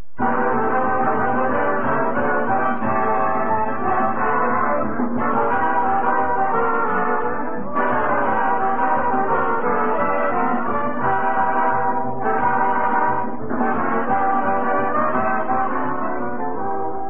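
A full orchestra plays the lively opening tune of a radio program, continuous with sustained brass-like chords and shifting notes, steady and fairly loud throughout, with no voices.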